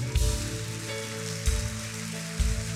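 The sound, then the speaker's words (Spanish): A church audience applauds God in a steady, dense wash of clapping that holds for a few seconds, with a sustained low tone and a few heavy low thumps underneath. “Ahora sí, el que lo crea, déle un aplauso a Dios.”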